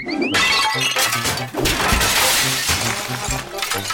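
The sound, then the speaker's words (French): Objects being hurled around a house: a loud, almost continuous barrage of crashing, clattering and breaking, with repeated heavy thuds underneath and no voices. “Voici donc maintenant le balançage de trucs à travers la maison.”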